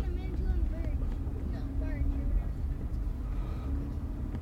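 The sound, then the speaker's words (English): A steady, deep engine rumble of a boat pulling away from a dock, continuous, with people chatting indistinctly over it. “Oh, we should go stand by there and watch the boat leave.”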